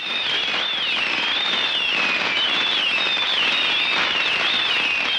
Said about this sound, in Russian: И по пути я увидела такую площадку, рядом с которой не было ни жилых строении, ни машин, ничего, и решила вот там запустить свой первый в жизни фейерверк. А, звуки этого фейерверка вы только что прослушали.